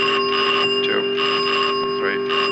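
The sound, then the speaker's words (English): An aircraft cockpit engine fire warning bell, which rings in the event of a fire in any of the aircraft's four engines, rings continuously with a steady, shrill metallic tone and no pauses, loud throughout, with brief muffled noise surging in and out beneath it. “Those bells ring in the event of a fire in any of the four engines.”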